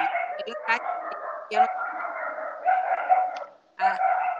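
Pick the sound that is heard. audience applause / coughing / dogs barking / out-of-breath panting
dogs barking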